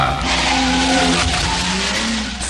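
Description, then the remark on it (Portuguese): A Formula 1 race car's tires skid and squeal loudly across the full couple of seconds, a harsh sustained screech over a roaring engine, with no voices present. “Para não fugir do assunto Fórmula 1 uhum. e sem correr risco de estar plagiando.”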